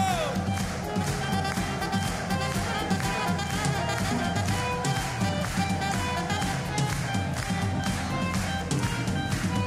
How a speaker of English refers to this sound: Hands up, everybody here. Hands over there. Hands up. Clap, clap. Let's go. The whole place. Let's go.